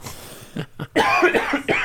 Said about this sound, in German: Oh Hustenreiz hier. Husten, ähm, Hustenreiz, ja.